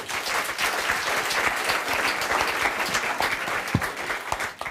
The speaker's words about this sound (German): Ein Applaus für Marius, bitte.